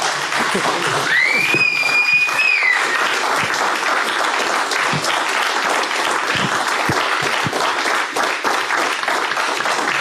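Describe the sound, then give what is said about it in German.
A crowd applauds steadily for about ten seconds, a dense, even crackle of many hands clapping at once, with a short high whistle cutting through near the start. “Mit Publikum, mit Applaus, mit Fans, denn für euch machen wir das, für euch.”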